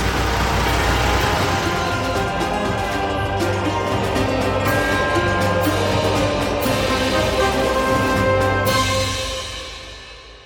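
A truck full of reservists, driven to the border, rumbles steadily with a deep low drone and a rattly mechanical hum, holding a constant level before fading out near the end; no one speaks.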